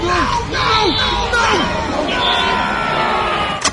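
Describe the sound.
Seven different screams by one person, layered into the Necronomicon's scream. Several voices scream at once in one dense, wavering howl that rises and falls in pitch for a few seconds, loud, ending with a sharp burst.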